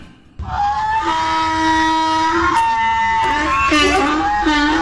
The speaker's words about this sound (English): When news breaks, the donkey brays.